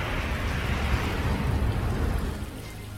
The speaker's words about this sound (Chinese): 接着，在恍惚中，他听到了汽车在雨中行驶的声音，